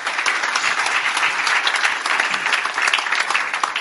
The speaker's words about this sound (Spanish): Pero tenemos al que ya lo logró todo. Cuando le da un aplauso al que ya lo logró todo.